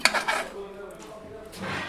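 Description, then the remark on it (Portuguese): Metal pots and pans clatter on the burners of a kitchen stove, with a cluster of sharp clanks at the start, quieter shuffling in the middle and another rattling clank near the end. “Na cozinha, são as panelas que devem encontrar o seu lugar entre os bicos do fogão.”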